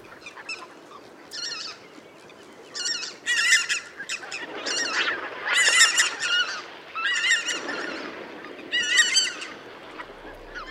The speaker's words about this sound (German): Die Zwerggans. Kommt vielleicht einmal im Jahr irgendwie so im Binnenland. Also, das ist schon eher was Besonderes.